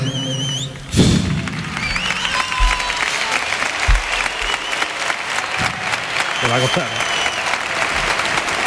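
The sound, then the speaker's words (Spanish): A large stadium crowd at the Benito Villamarín, all on their feet, applauds loudly and continuously, chanting "Joaquín", with a few whistles rising over the dense, steady clapping, plus occasional dull thumps. “Todo el público puesto en pie.”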